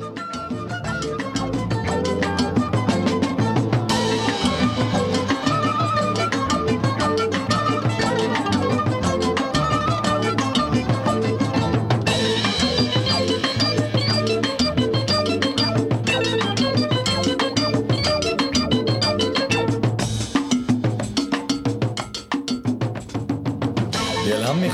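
Upbeat Persian pop duet music plays loud and steady, a full band with a bright, clacking cowbell-like percussion driving the rhythm, with no clear vocals standing out in this stretch.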